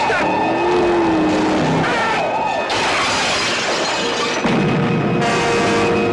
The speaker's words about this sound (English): I think I hear the engine of that car. It's around here somewhere.